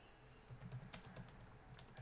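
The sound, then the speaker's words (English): Quiet, rapid key clicks from a computer keyboard as someone types live, irregular taps pattering with no voices, a soft steady run of typing throughout. “I'm like creating this live and typing on my oh, keyboard.”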